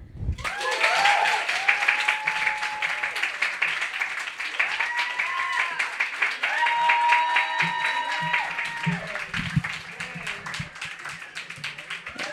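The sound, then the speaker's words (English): Sustained audience applause after a poem reading, a dense wash of many hands clapping steadily for about twelve seconds, with a few whoops and cheers rising above it at moments. “Um, let's give one more round of applause for all 12 of our readers who were indeed fantastic.”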